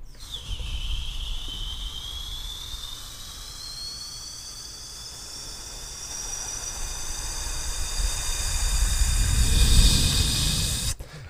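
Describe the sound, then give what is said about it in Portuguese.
A voice imitates an airplane with a sustained, breathy whooshing hiss and a rising whine over low rumble, swelling louder near the end before cutting off abruptly after about eleven seconds. “tá, mano, tentando fazer de avião mesmo.”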